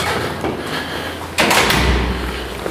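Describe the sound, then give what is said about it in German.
A door to a stairwell opens partway through with a sudden thud and a brief rush of noise, then a low rumble over steady background hum. No one speaks. “Tür geht auf”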